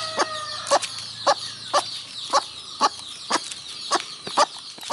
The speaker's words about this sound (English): but the flock was doing this really loud version of like specifically the lost chick call right after that happened for a while